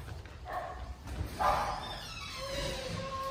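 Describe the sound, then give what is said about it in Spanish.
A couple of female dogs that had been shut in bark in short, sharp bursts, happy to see their returning owners, then one keeps up a thin, high whine against steady background noise. “A los que encerramos fueron a las perras.”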